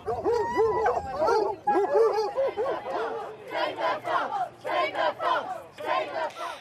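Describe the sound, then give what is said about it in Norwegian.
A pack of hunting hounds on a fox hunt in the English countryside, followed by riders on horseback, bays and barks together in a loud, overlapping chorus, with rising yelps and howls surging in repeated bursts throughout, energetic. “Fulgt av en enda større flokk blodtørstige hunder. Jakten er i gang.”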